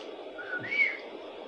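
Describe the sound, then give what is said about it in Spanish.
A person whistles a short phrase, a name translated into whistled language as practised in the Sierra Mazateca, with one brief, bright tone peaking mid-clip over a steady breathy hiss, fairly quiet. “los primeros fue tratar de traducir sus nombres a un lenguaje silbado.”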